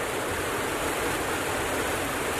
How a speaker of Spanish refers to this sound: en ruta, ya entrando a la ciudad de Córdoba bajo una intensa lluvia torrencial, sigue camino.